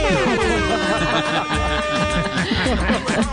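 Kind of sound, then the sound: signal or alarm, horn blast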